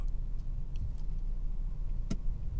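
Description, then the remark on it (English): A car drives through traffic behind a school bus with a steady low engine and road rumble, faint ticking now and then, and one sharp click near the end. No one speaks. “i'm stuck behind a school bus that's what i'm navigating here”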